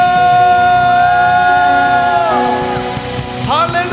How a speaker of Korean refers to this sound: 믿으시는 만큼 주님께 영광과 감사야 박수를 기대하시는 만큼 승리의 함성